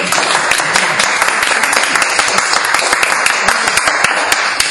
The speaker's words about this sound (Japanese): 実はオーディエンスも結構いてですねえっ、ー、とちょっと拍手してくださいどのぐらい